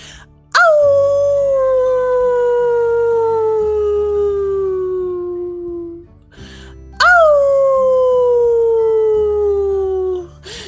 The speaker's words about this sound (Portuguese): Essa impressionante criatura, metade lobo e metade humano, amedronta quem o escuta, pois para a lua permanece uivando.